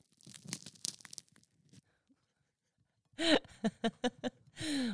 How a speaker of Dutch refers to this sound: We gaan even ASMR, jongens. Ik weet niet of jullie weten wat het is, ASMR. Ik weet de afkorting. Maar we gaan dus nu even lekker brood breken.